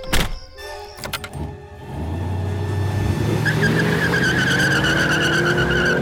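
A car engine roars loudly as tires skid and squeal while the vehicle fishtails wildly around a corner, the screech rising and sustained for several seconds, intense with no talking.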